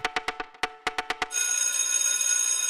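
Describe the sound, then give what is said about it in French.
An electric school bell rings loudly on a Saturday morning: a quick series of sharp clanging strikes, then a steady, continuous metallic ring. No one speaks. “à la sonnerie de l'école le samedi matin.”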